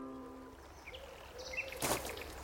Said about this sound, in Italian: La riva del Tago non è come la laguna di Venezia, ma il suono dell'acqua è pace. È come sentire il rumore del silenzio.